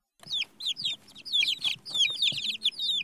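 Chickens cluck and peep in a quick, busy series of short, high calls, fairly loud, with no one talking.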